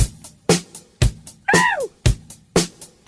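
A 1980s pop song recording plays: a punchy, steady drum beat at about two hits per second, with a short sliding vocal-like melodic phrase rising and falling over the rhythm. No one talks.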